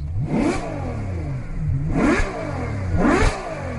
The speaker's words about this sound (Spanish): nos pide que nos subamos al coche. ¿Arrancamos?